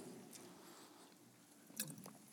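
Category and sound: food or drink, sipping water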